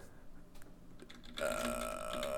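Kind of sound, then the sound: machine, typing on a keyboard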